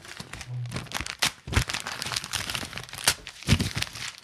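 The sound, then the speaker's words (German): A sheet of paper is snatched and crumpled, a dense run of crackling, crinkling rustles with several sharper crunches standing out, fairly loud and continuous for about four seconds with no talking. “Gib mir den Zettel.”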